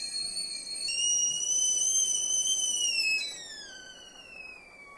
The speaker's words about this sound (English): Oh, looks like the kettle's calling.